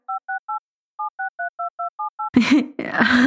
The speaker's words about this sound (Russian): Если трубку брал муж Ру, то слышал э, мелодию набора номера. Кирилл, может, ты вставишь эту мелодию набора?